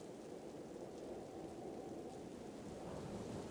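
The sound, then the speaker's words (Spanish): A steady, dense roar of heavy rain pours without a break, with a deep low rumble running underneath like thunder. There are no voices. “Llovía tan fuerte que parecía que el cielo se estaba cayendo.”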